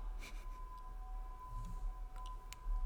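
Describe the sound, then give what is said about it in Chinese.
A voice mimics an ambulance siren with a thin, steady high-pitched tone held for about three seconds, fairly faint over a low background rumble. “救护车来了，救护车来把我载走了。”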